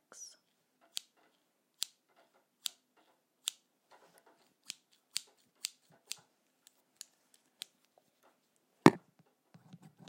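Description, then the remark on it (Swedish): Scissors snip through paper in a steady series of about ten crisp cuts, roughly one every second, ending with a louder, heavier snip. No one speaks. “Jag ska klippa i papper lite nu tänker jag.”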